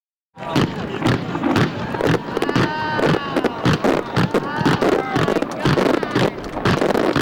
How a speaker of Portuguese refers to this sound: Esses sons que você está ouvindo são de um arco-íris que ele criou com fogos de artifício.